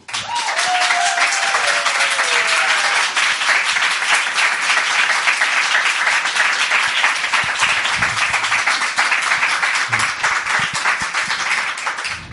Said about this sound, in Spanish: Por eso, el primer aplauso de esta velada se lo lleva ni más ni menos que el gran Aitor Saraiva.